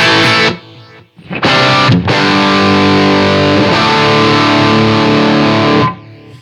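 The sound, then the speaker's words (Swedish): Loud, heavily distorted electric guitar chords ring out in sustained bursts through a boost effect, which adds a low humming drone beneath the saturated tone; a delay effect is switched on, with brief gaps between strums; no one speaks. “Och sen så kan du ju också, nu hör jag att det brummar ganska mycket med den ja, här visst. boosten.”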